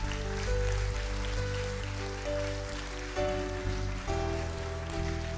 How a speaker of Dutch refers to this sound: Zullen we eens een applaus geven? Dank jullie wel.